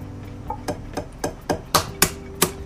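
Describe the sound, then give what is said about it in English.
Eggs being cracked: a series of about eight sharp, hard taps in a fairly steady rhythm, growing louder toward the end, with no talking. “I, after I crack these eggs, I'll be more attentive to what I'm doing.”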